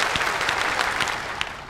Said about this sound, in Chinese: 我们再次掌声鼓励几位精彩的表演，谢谢。